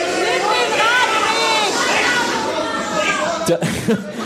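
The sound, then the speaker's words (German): A live audience of many voices, on a count of three, makes a loud, overlapping jumble of whooshing, buzzing and chattering noises, imitating bicycles riding past, continuous for a few seconds before trailing into scattered laughter. “Einfach auf drei, euer bestes Fahrradfahrgeräusch.”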